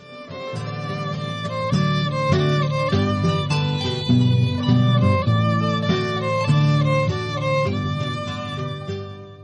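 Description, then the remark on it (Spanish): An instrumental opening theme for a radio serial about Emiliano Zapata, produced by Radio Educación with the Instituto Nacional de Estudios Históricos de las Revoluciones de México, plays alone, full and loud, with sustained melodic lines and rich harmonies over steady low notes, no voices. “Un espacio cuya careta de presentación suena así.”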